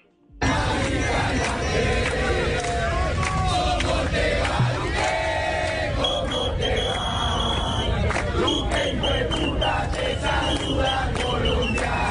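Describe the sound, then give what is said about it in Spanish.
A large outdoor crowd at a street rally in Medellín chants and shouts together in a dense, continuous roar, many voices overlapping loudly and steadily for the whole stretch with rising rhythmic calls. “Así es como dice este video, por si usted no logra escucharlo, porque se escucha mucho ruido ambiente en estas arengas que se produjeron en Medellín.”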